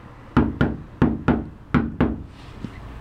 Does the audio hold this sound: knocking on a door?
yes